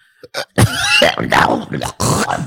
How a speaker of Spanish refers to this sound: Dame agua, vieja. Ahorita que me levante, me quita la tos. Nomás en la mañana es cuando me pasa esto. Yo creo que me resfrié o han de ser alergias.